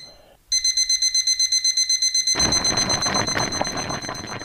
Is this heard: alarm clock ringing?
yes